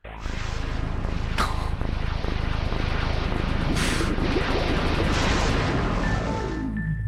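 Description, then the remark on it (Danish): An Xbox game console's startup sound: a loud, dense roaring rumble lasting several seconds, with two sharp hissing bursts, fading out on a falling electronic tone. No one speaks. “Og øh, vi fik simpelthen en helt fantastisk maskine, som øh, sagde det her, når du så tænder, den, øh, tænder for den.”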